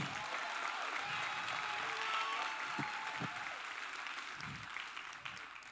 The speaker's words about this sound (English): My son is here. One of my sons is here. No, clap for him. He came to church.